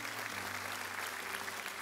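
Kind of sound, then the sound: crowd, audience clapping hands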